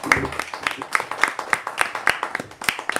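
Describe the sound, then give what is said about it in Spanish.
Steady applause from a small group for two presenters who have just finished their talk, with quick overlapping claps that continue throughout, and some faint voices underneath. “Yo creo que se merecen un buen aplauso, ¿no?”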